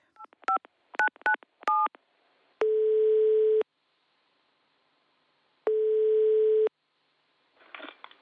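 A quick run of keypad dialing beeps, then two long, steady ringing tones separated by a pause, followed by a soft rustle as the line picks up. No one speaks.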